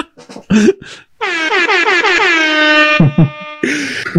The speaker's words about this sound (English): yo, yo, yo, we got DJ sound effects